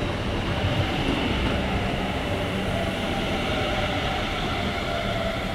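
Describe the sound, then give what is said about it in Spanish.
A steady, loud rumble of a train at Belgrano R station of the Mitre line, on the platform toward Retiro, with dense low-frequency roar and faint metallic hiss continuing evenly throughout, no voices audible. “Estación Belgrano R del tren línea Mitre, Andena Retiro, barbijo puesto, bicicleta atada a un poste,”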